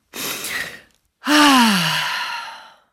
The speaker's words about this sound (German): Einmal tief Luft holen.